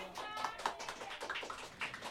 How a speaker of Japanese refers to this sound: 拍手が巻き起こっております